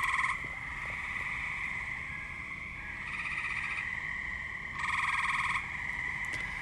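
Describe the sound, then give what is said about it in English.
A steady chorus of frogs or toads croaking and trilling outdoors in a backyard at dusk, out in full force at the start of their mating season, with a few louder bursts of calling swelling above the constant background drone. No one speaks. “I came home from my evening's activities, and it was becoming dusk, and I got out of my car and I believe they're frogs or toads or something.”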